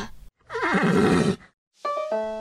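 A horse whinnies loudly, a long wavering neigh followed after a short pause by a second, steadier call with clear tonal harmonics, with no talking.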